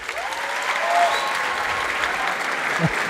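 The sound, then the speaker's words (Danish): A live audience claps steadily after being asked whether they know the word "rizz", a dense wash of many hands at a fairly loud level for a few seconds, with faint voices and whoops mixed into the crowd. “Kender I ordet RIS? Lad mig høre en applaus.”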